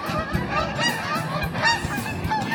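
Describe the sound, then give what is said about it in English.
A large flock of geese, counted at over forty birds, honks continuously, many overlapping calls forming a dense, noisy chorus that carries steadily, with no talking. “We have to pause while we take a sip of wine and listen to the geese.”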